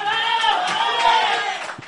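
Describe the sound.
An audience cheers and applauds to welcome a guest, a steady, dense wash of voices and clapping that holds at an even loudness for about two seconds, then eases slightly at the end.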